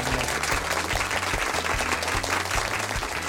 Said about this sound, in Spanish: Esto se merece un fuerte aplauso.